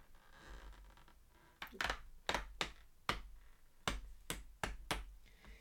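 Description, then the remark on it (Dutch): The little door for 21 December of a Pickwick tea advent calendar being opened, heard as a quick run of sharp clicks and taps that come in uneven bursts over a faint background hum, with no voices. “Ik vond dit echt een beetje klinken als zo'n oude deur wat je ziet in griezelfilms.”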